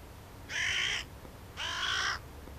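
Two loud, harsh caws from a hooded crow, each about half a second long with a raspy, buzzing tone, separated by a short pause over a faint low background rumble.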